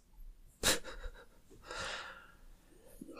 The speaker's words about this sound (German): Ich gähn dann mal ins Mikro. Ja, ich musste mich, ich musste gerade an mich halten, nicht auch ins Mikro zu gähnen.